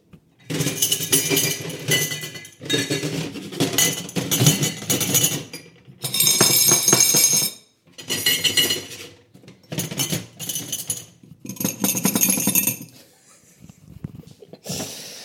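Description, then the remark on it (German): Dirty dishes and cutlery rattle and clink on a table vibrating from a running fully automatic coffee machine in an office kitchen, in repeated bursts of a few seconds each, separated by short pauses, loud, like crockery shaking on a vibrating surface. “Ja, äh, so klingt das, wenn äh, der ganze Tisch vibriert mit dem dreckigen Geschirr drauf.”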